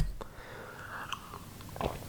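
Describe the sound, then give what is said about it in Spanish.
A quiet sip from a drink, with soft slurping and small wet mouth clicks over about two seconds, followed by a brief swallow. No one speaks. “Sorbo y un brindis por eso.”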